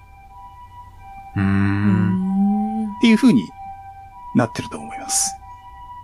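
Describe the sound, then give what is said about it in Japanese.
A faint, steady two-tone ambulance siren runs underneath the whole stretch while people talk over it, staying fairly constant as if passing nearby rather than fading. “救急車が鳴ったんで、じゃあ僕はこれぐらいにしときましょう。”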